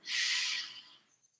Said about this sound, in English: Ribs come in and out. And again, once again, breathing in.